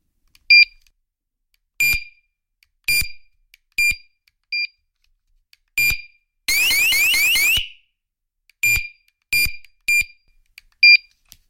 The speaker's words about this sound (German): Gut, also das ist dieser Alarmmodus, dann kann er nur das.